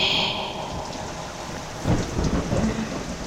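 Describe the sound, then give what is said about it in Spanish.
Heavy rain pours steadily in a dense hiss during a storm, with a low rumble of thunder swelling up partway through and lingering. No voices. “Estaba lloviendo fuerte”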